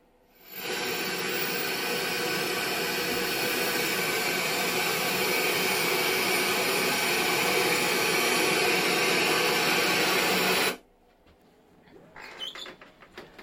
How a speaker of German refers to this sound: Ja, und jetzt hören wir eine Flugzeugturbine, aber nur bei geringer oder äh, schwacher Leistung, ne? Ganz oder? genau, in 10 Meter Entfernung.